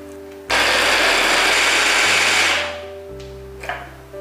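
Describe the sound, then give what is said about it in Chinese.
A blender roars to life and grinds three slices of frozen dried tofu, roughly broken into chunks, with a loud, harsh whir for about two seconds, its motor pitch shifting before the noise winds down, followed by a faint clunk. “准备三片的冻豆干，就是把豆干拿到冷冻后，就会变成豆豆干，随意的剥碎，放到搅拌机里面来。”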